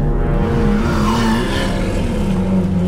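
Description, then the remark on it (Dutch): A Lamborghini Aventador sports car engine rumbles steadily and loudly, its low growl shifting slightly in pitch as the car pulls up at a small hotel in the Netherlands, just over the border, with no talking over it. “Lamborghini Aventador is toch een zeer exclusieve wagen, ja.”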